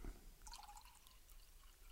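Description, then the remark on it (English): Wine poured to top up a glass, a faint trickle with a soft rising tone and a few light splashes. No one speaks. “I hope you can get the foley of that, listeners, of the of the glass being poured.”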